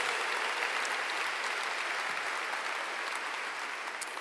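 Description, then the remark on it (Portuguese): A church audience applauds steadily in honour of its leaders, a dense wash of many hands clapping at an even loudness for several seconds, with no voices standing out above it. “Você, você consegue dar uma salva de palmas honrando a vida dos seus líderes?”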